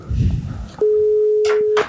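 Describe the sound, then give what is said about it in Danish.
A telephone ringing tone sounds on the line of a call placed from Absalon Radio: one steady, fairly loud beep lasting about a second, preceded by a brief stretch of muffled talk and followed by faint rustling. “Den ringer.”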